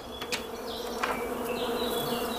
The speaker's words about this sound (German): Das Summen war so laut, dass ich mich selbst nicht einmal mehr denken hören konnte.